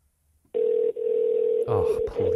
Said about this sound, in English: It's freaking 10:49 on Monday morning, Sephora. What are you guys doing not answering your phone on the 15th ring?